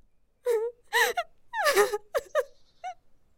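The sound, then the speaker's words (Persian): A person crying out in pain after being lashed with a whip on the back and sides, with a series of wavering, moaning wails, loud, each cry breaking off into shorter sobbing gasps with brief pauses between them. “اگر بار دیگر آواز گریه تو را بشنوم زبان تو را میبرم”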